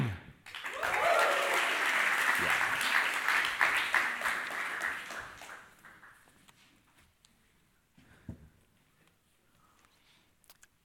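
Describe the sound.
A crowd bursts into loud applause and cheering after a toast of "Lachaim" ("to life"), swelling quickly, holding for several seconds, then fading into scattered claps and a brief spoken word near the end.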